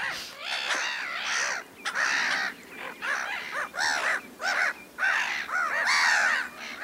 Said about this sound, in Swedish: Så alltså, denna skrattmås, är den lika opportunistisk som sin släkting gråtruten då?